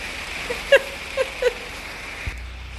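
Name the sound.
heavy downpour of rain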